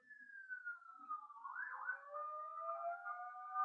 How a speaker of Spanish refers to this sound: Están pasando unas ambulancias acá, disculpen, no tengo cómo controlar eso.